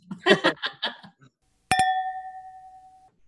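glasses clinking

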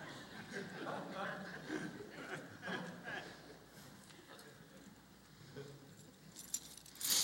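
car keys jangling

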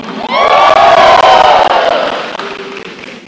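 audience shouting and cheering

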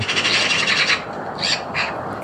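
birds calling

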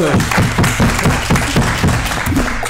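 audience applause

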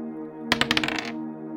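six-sided die being rolled

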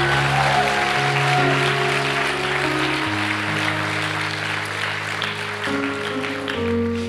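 audience clapping

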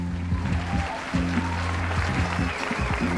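applause sound effect

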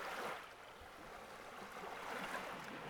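sea waves

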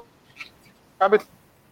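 call audio drop-out

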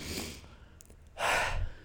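deep breath in

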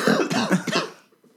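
cough

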